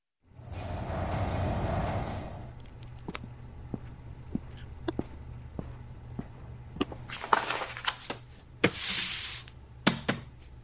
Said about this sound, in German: Erst war so das Zischen einer Tür zu hören, so und dann Schritte auf einem offensichtlich gedämpften Material, auf einem Teppich